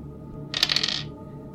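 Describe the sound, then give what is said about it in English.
Dice rolled across a hard surface, a quick half-second clatter of several bright, rapid clicks that rise and then taper off, over a faint low background hum. No one speaks. “Um, so you'll be rolling one less dice whenever you roll.”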